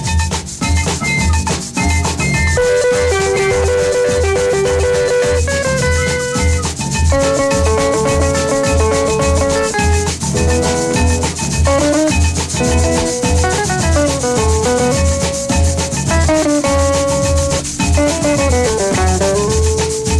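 A 1950s Colombian band song plays steadily and loud, with a pulsing low rhythm beneath bright melodic lines that rise and fall. It's instrumental, with no voices heard.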